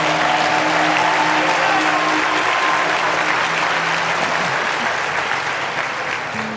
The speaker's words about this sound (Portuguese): Está tímido demais essas palmas.